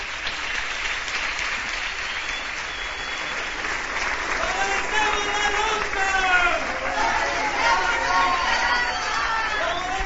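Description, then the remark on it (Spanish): Loud, sustained applause from a large audience, dense clapping filling the whole stretch, with scattered voices and cheers rising through the crowd noise, applauding the members of Vía Campesina at the second encounter of Zapatista peoples with the peoples of the world in Caracol 4 of Morelia. “Un aplauso fuerte para los hermanos y hermanas de Vía Campesina.”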